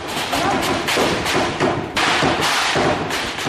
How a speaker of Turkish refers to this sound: Şanlıurfa'nın Akçakale ilçesinin karşısındaki Rakka kentine bağlı köylerden silah sesleri yükseliyor.